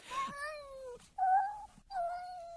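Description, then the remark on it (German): A cat meows three times in a row, each call a drawn-out, wavering cry with a short pause between, fairly loud with no other sounds around it. “Sie sollen die Katze wieder rauslassen.”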